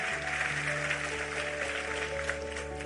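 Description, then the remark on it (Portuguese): An audience applauds the Lord, clapping steadily and loudly for about three seconds, a dense, even patter of many hands, with sustained organ-like chords humming underneath. “E aplauda o Senhor forte, porque Ele é tremendo.”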